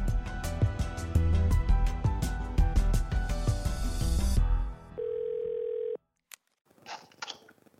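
After loud music cuts out, a single steady phone ring tone sounds for about a second, followed by silence, a sharp click and faint rustling as the line picks up.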